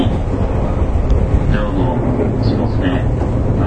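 A steady, loud rumble of a JR 415 series electric train running on the Nippo Line from Kokura to Nakatsu, with dense low-frequency roar and a few faint whining tones rising briefly over the noise.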